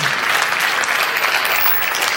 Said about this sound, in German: mit einem ganz, ganz herzlichen Applaus zu begrüßen und wünsche euch ganz viel Spaß bei dem Talk.